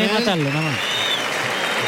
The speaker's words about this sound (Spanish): Pues la gente ha visto lo que ha hecho Morante, porque le está aplaudiendo, salvo algunos señores que opinan lo contrario y por tanto muestran su desagrado y hay una cierta división.